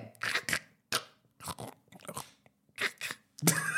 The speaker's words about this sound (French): Manger des chips, c'est ah, horrible. Hein, pour... ouais, je, viens d'écouter, c'est horrible.